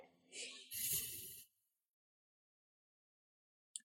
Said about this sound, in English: If not, at least breathe. Okay, ready? Yes. Take a deep breath in.